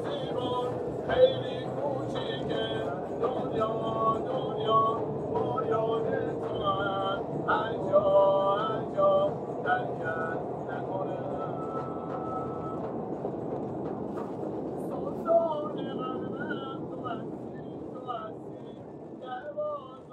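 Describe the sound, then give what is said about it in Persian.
A street musician sings with an instrument in a metro station, his melodic voice and sustained tones carrying over the steady rumble of trains and a crowded underground hall. “ساز و آواز این مرد چه حسی به تو داد میدانی سختی کار اینجاست که باید در مترو بخوانی برای صدها نفر که بیشترشان اعصاب راحتی ندارند”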